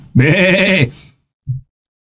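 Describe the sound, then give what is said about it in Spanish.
A voice imitates a cow with one loud, drawn-out wavering bleat lasting under a second, followed by a brief low grunt after a short pause. “Mientras hablaba esto, afuera estaba, atrás estaba la vaca.”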